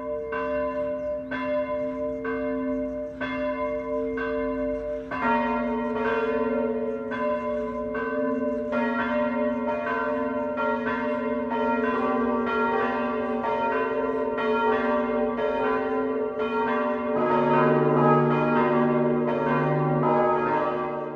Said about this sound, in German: Es ist 12 Uhr. Das Mittagsläuten kommt heute aus Gelting in Oberbayern. Jörg Haller hat den kleinen Ort in der Gemeinde Plining im Landkreis Ebersberg besucht.